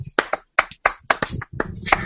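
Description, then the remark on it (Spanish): A short, sparse round of clapping from a few people, with irregular, uneven sharp claps over about two seconds, moderately loud and unsynchronized, stopping quickly. “No, no era buena idea, no somos, somos muy pocos para hacer un aplauso.”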